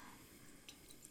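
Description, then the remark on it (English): A couple of small water drops plink into a glass of whiskey, quiet, two soft drips a fraction of a second apart over faint background hiss. “That's exactly what this show is with water.”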